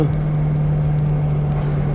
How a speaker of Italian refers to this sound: qui dove adesso qualcuno ha suonato quindi si fermerà un altro un attimo l'autobus